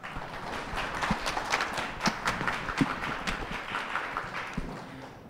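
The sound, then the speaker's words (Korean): Audience applause welcoming three guests of a fact-check team: a dense, steady patter of many hands clapping for about five seconds at a fairly even loudness, with no talking over it. “네, 세분 나와주셨는데 우선 박수 부탁드립니다.”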